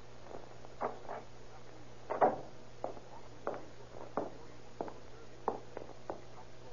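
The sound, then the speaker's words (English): A series of soft footsteps of someone in a hall, approaching at an uneven walking pace, fairly quiet, over a low steady hum with no talking. “I hear someone in the hall now.”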